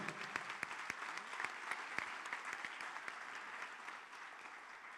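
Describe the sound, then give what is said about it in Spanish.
An audience applauds steadily for the King of Glory, a dense wash of many hands clapping with sharper individual claps popping out, sustained for the whole stretch, with no one talking over it. “Vamos, déselo fuerte al Rey de la Gloria.”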